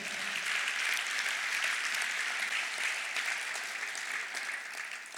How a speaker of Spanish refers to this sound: Alguien tiene un aplauso al Señor.